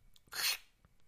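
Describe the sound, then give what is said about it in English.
A single sharp hissing burst made with the mouth, a voice imitating a guillotine blade chopping off a head, lasting about a third of a second, with near silence around it. “That's the sound of his head being guillotined right now, and uh, he he's gone.”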